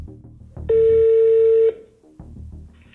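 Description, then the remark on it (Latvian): A single loud, steady electronic telephone tone, from a phone call placed by Latvian Radio, sounds for about a second, standing out over a soft, low musical background, with no one speaking. “no Latvijas Rādio jums zvana.”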